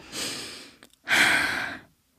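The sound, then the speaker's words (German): A voice imitates exasperated heavy breathing: two loud, breathy exhales, the second longer and stronger, with a brief pause between them and no words. “Und dann atmet sie so.”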